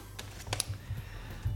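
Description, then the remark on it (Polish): Soft, muffled key presses on the silicone keys of a Bluetooth MIDI keyboard, keys that barely sink in, a few quiet dull taps spread irregularly across the moment with faint clicks, low and subdued rather than sharp. “ale to jest klawiatura silikonowa.”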